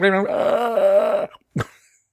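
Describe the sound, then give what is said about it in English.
A person imitates a character's pained scream: one loud, strained, drawn-out vocal cry lasting over a second, followed by a brief pause and a short gasping grunt. “that's kind of what he sounds like when he screams. kind of a weird scream.”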